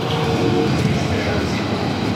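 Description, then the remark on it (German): Steady, dense rumble of a train running through a tunnel on the way to Berlin's BER airport, a continuous low roar with rattling texture and no breaks, fairly loud throughout. “Ähm, wir sind gerade tatsächlich noch in einem Tunnel.”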